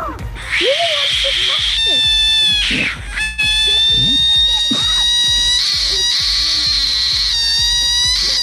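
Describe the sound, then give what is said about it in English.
A scared frog lets out a loud, shrill, sustained scream, wailing almost continuously with a couple of brief breaks, while faint voices murmur underneath. “It is a frog that screams when it's scared.”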